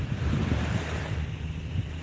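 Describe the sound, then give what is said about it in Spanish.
Steady, rushing surf noise fills the whole clip, a broad continuous wash of ocean waves on a beach, with a low rumble and some wind buffeting the microphone, with no voices. “doy gracias porque estoy aquí al lado del mar, en la playa, escuchando los sonidos de las olas.”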